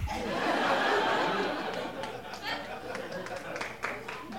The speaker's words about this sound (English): Someone had the right idea, and that was to clap me off.